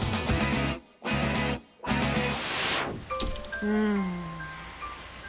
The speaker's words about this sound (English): I love the sound of the rain.